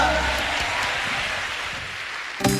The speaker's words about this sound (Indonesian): Tepuk tangan bagi Tuhan yang luar biasa.